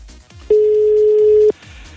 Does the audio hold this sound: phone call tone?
yes